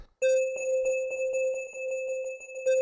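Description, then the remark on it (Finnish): A single steady telephone ringing tone comes down the line, a continuous electronic beep held for a few seconds, clear and fairly loud with no voices. “No nyt se ei vastaa puhelimeen vastaaja vaan vastaa.”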